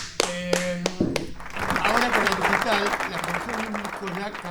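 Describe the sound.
A few sharp claps beside a held low tone, then a small group breaks into steady applause that continues to the end, with people talking over it.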